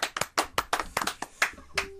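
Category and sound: crowd, hand clapping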